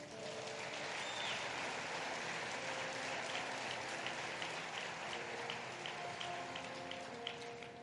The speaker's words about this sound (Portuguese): Pode aplaudir o Senhor, mano.